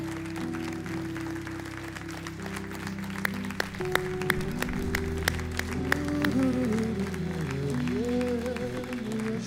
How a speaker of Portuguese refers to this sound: Aplauda mesmo ao Senhor, querido.